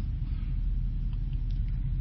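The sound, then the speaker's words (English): A vintage Model T car engine rumbles steadily outside, a deep, continuous low throb that holds an even loudness from start to finish, with no voices over it. “Do I hear the Model T outside? Model T is rumbling, isn't it,”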